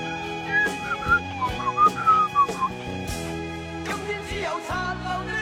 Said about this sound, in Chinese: 口哨吹的挺溜啊！你看看，从小就学。